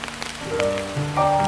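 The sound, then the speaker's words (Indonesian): Steady rain pattering on a surface, a soft continuous hiss heard under gentle sustained musical tones, with no one speaking. “Ingin menyampaikan pesanku pada hujan.”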